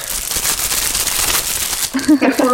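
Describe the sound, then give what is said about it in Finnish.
Plastic wrapping crinkles in a loud, continuous crackle for about two seconds, then a voice briefly starts talking over the tail end of the rustling. “voit sä kuiskata ASMR ja sit vähän rapistella sitä muovia vielä?”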